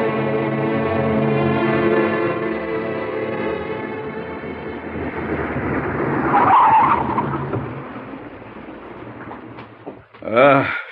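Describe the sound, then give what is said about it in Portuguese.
A car engine drones steadily, then tires skid loudly in a harsh, scraping screech as the car narrowly avoids a truck. The noise fades briefly, and a short, loud rising squeal follows at the end. “Ah, cuidado, Alex, você está conversando, nem né? reparou no oh, caminhão.”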